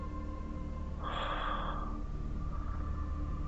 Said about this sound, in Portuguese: Tu, a gente escuta, né? A tua respiração.